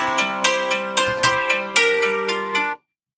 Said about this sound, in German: Sorry for that. Das war mein Wecker. Bevor jetzt gleich der nächste losgeht, habe ich jetzt mal alle Wecker ausgemacht.